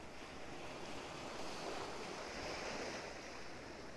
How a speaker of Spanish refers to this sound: Quizá lo ves, quizá lo escuchas, quizá ambas. El mar y tierra gallega.